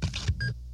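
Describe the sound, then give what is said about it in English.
A credit card swiped quickly through a scanner to make a purchase, a short scraping whoosh followed right away by a brief electronic beep, with a low hum underneath. “That's the sound of a credit card sliding through a scanner.”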